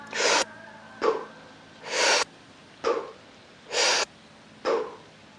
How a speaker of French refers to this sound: le but ici c'est vraiment d'inspirer, de prendre de l'oxygène rapidement et d'expirer passivement, de juste laisser sortir le CO2